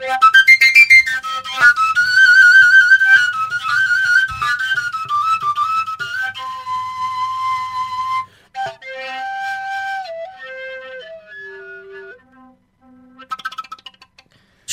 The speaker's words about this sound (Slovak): čo je to tá trojdierová píšťala, prosím ťa? To je koncovka len s troma dierami?